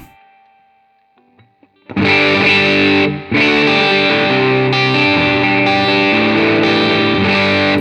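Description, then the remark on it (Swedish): Distorted electric guitar on the middle pickup position, turned up full with gain: after a faint fading ring, loud, thick sustained chords crash in, pause briefly, then keep droning with a gritty, bright tone. “Mellanläget då helt enkelt. Det är mellanläget här.”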